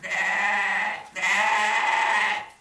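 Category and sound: animal, billy goat bleating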